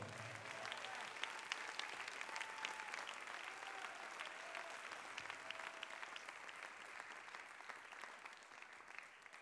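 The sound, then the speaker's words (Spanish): An audience gives Christ applause after a reading from the word of the Lord, a dense wash of overlapping claps that stays loud and even for the whole stretch, with faint voices murmuring beneath. “Si cree que esa palabra trae bendición, denle el mejor aplauso a Cristo en esta hora.”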